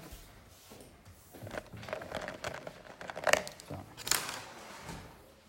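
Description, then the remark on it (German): Scattered rustling and crinkling of paper with light clicks and handling noises, a few sharper crackles standing out, as pens and sheets of paper are handed out and passed along amid faint background voices. “Ich gebe euch einen Stift und ein.”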